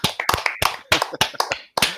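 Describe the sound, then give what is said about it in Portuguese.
A short burst of hand clapping, a quick run of sharp claps with slightly uneven timing, like a small round of applause lasting about two seconds. “Olha, primeiro arrancar aplausos.”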